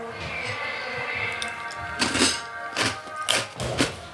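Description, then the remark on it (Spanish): A door is pushed shut: a series of dull thuds and knocks in the second half, over a steady background of hum and outside noise from a car protest. No one speaks. “Voy a cerrar esa puerta porque está entrando.”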